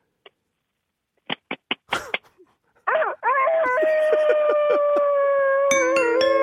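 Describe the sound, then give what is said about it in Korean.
A few short clicking syllables lead into a long, loud, drawn-out vocal crow as a person on a phone call imitates a rooster crowing at dawn, the held call wavering and stepping in pitch for several seconds. “새벽에 우는 닭소리.”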